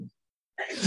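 sneeze

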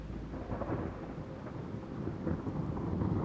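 thunderstorm with rolling thunder

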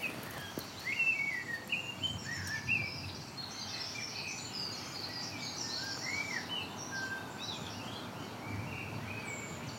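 blackbird singing

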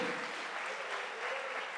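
audience applauding

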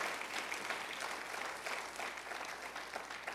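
audience applauding loudly

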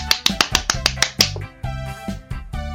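clapping hands

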